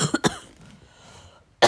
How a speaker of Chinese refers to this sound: 哦，妈妈有点冷，就一直咳嗽。嗯，那为什么妈妈一直咳嗽？